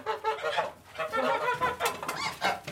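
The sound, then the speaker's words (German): Nine domestic geese cackle and honk in a steady, overlapping chorus, fairly loud, with bursts of sharper calls and no talking, as they run out of a barn in the morning onto their grass pasture at Neuen Bloß near Bayreuth. “rennen neun Vögel, so schnell die Gänsefüßchen sie tragen, an ihr vorbei auf ihre Grasweide.”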